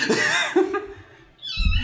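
cat

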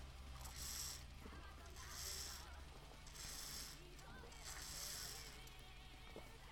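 drinking water

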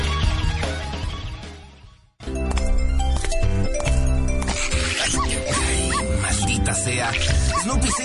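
dog whimpering and yipping

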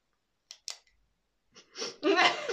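ballpoint pen clicking

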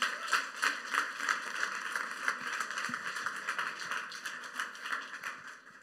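audience applause

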